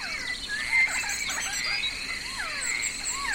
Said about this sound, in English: you hear all these sounds around you birds producing sound, insects producing sound.